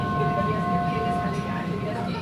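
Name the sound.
subway train ride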